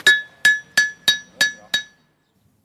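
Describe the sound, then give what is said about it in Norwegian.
A blacksmith hammers metal at a forge as seventh-graders try blacksmithing, making knives and horseshoes: six sharp ringing strikes in a steady rhythm, each with a bright metallic clang that rings briefly before the next blow, then silence. “Sjuendeklassingene har fått en forsmak på smedyrket. Kniv og hestesko og alt”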